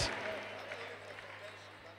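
crowd, audience clapping

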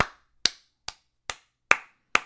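human body sound, single hand clap

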